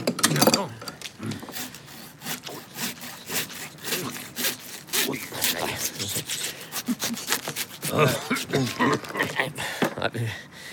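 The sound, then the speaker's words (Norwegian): A hand saw rasps back and forth in quick, steady strokes, sawing open a skull, fairly loud, with a brief pause midway and faint voices underneath. “jeg har aldri åpnet et kranium. I så fall må vi vel sage det opp.”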